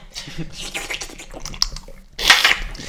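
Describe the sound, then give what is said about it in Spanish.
Wet sipping and gulping of water, a series of small slurps, a brief pause, then a louder, noisier splash of liquid near the end. “Ay, perdón, un de agua.”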